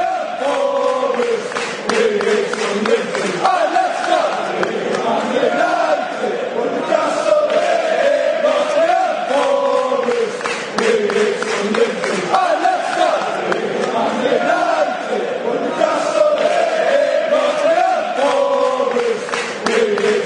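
A large crowd of Newcastle United football supporters chants in unison a song taunting Sunderland and three other rivals, a loud, sustained sung melody with rhythmic swells and repeated phrases carried by many voices throughout.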